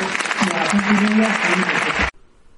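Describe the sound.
A crowd at a congress applauds to thank a speaker who talked about minerals, with dense, sustained clapping and a few voices mixed in, holding steady at a loud level for about two seconds before cutting off abruptly into near silence.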